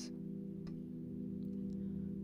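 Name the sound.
clock ticking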